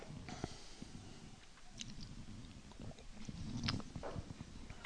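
Someone sips coffee: a few soft slurps and swallows with small clicks and mouth noises over about five seconds, and no talking.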